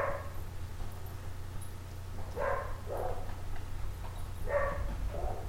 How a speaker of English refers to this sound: Hmm. Sorry, we just had a stampede of dogs running through the house.